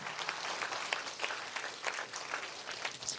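An audience stands and gives the Lord a round of applause, a dense wash of many hands clapping with scattered sharper claps and whoops poking through, sustained and fairly loud throughout.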